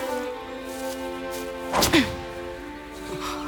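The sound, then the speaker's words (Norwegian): A ball is thrown in a garden by the character Pil with one quick, fairly loud whoosh and thwack near the middle, set against a steady bed of background music with no voices. “Pil kaster ballen lenger enn langt.”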